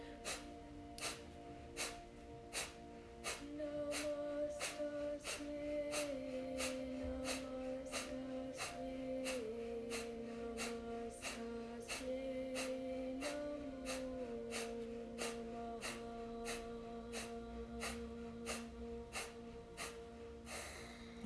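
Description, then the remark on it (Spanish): Rapid, forceful nasal exhalations of Kapalabhati (breath of fire) breathing repeat in a steady rhythm, about one or two per second, crisp, over a soft sustained musical drone with no talking. “Y comienzo solamente exhalando por nariz en Kapalabhati, respiración de fuego.”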